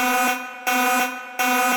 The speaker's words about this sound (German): Spoiler-Alarm!